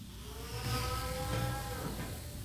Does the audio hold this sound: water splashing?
no